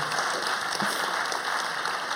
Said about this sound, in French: Eh ben, ah, un grand applaudissement. Bravo.